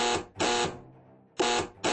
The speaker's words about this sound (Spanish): De pronto se dejó oír un sonido en el interior, el timbrazo insistente del telefonillo de la puerta principal.